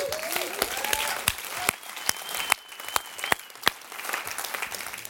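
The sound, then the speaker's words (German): An audience breaks into sustained applause for the technicians, a dense wash of many hands clapping with a few sharper, louder claps standing out, steady throughout. “Geben wir all diesen Technikern einen riesen Applaus.”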